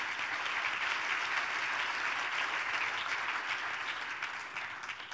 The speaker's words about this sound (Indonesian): Anda tepuk tangannya bagi Tuhan.